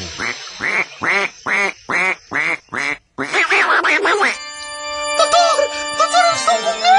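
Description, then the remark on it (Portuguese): A duck quacks six times in quick, evenly spaced, loud succession, followed by a brief noisy flurry and then a sustained electronic, ringtone-like melody. “Sua mãe, mamãe Benedita Jackson, entra em trabalho final de pato.”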